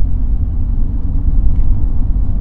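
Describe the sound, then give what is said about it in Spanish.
A steady, loud low rumble of a car on the road, continuous road and engine noise with no distinct events, and no one speaking. “Déjame le pego un carro casi, otra vez.”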